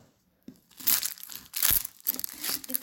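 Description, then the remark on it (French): A knife cutting through shallot, making crisp, crunchy slicing sounds in several uneven bursts with short pauses between them. Nobody speaks. “Je sais pas si là, par exemple, ça s'entend que je coupe l'échalote.”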